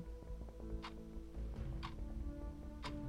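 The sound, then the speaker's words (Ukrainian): A large wall clock in a living room ticks steadily at four in the afternoon, three crisp ticks about one second apart, heard over a low, sustained musical drone with no voices. “Чоловік подивився на великий годинник у вітальні, то була четверта дня.”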